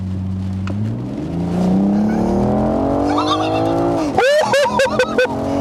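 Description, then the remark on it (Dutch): A car in sport mode engine revs up hard, its pitch climbing steadily for several seconds, then drops sharply and gives way to a few quick rising bursts, like gear shifts or brief tire chirps. “Dat gaat hard, hè? Lekker, hè? Ja, dat is echt een lekker gevoel. Je wordt in je stoel gedrukt.”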